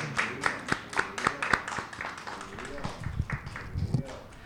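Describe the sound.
A round of applause: sharp, rhythmic claps at first, thinning into scattered clapping mixed with chatter and voices from the audience.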